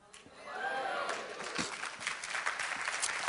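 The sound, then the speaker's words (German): An audience bursts into steady applause and cheering, a dense wash of clapping with a rising whoop early on, continuing at an even level for a few seconds. “Ich sag's noch einmal, vielleicht jubelst du dann.”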